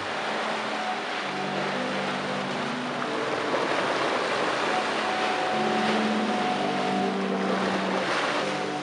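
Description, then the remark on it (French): Steady wash of surf carries low, breathy organ-like tones that swell and overlap in long sustained notes, as waves enter large tubes beneath wide marble-like steps descending into the sea, forming a sea organ, with no talking. “Mais sous les marches, il y a des grands tubes. Et quand les vagues entrent dans les tubes, eh ben, ça fait des sons.”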